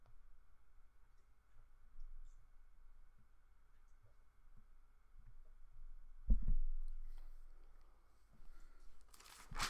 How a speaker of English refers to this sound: Okay, um let me set the timer for me here.